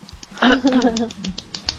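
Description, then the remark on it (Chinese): An applause sound effect is played: light, scattered hand claps patter along unevenly, a dozen or so soft taps, while a brief voiced, squeaky vocal sound rises over them in the middle. “说的太好了，鼓掌， 可以掌声音效，”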